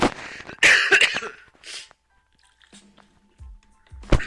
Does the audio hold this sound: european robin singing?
no